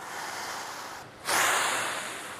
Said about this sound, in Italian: Vi chiedo una cosa, facciamo una cosa tutti insieme, prendiamo un respiro tutti insieme.